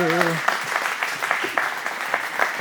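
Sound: audience applause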